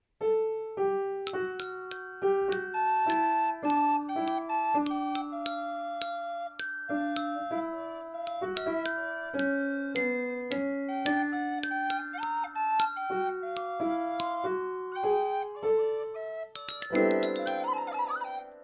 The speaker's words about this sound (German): Los, jeder schnappt sich sein Instrument und spielt ein Schneelied. Du die Flöte, ich spiele Klavier und du, Fini, nimmst dein Glockenspiel.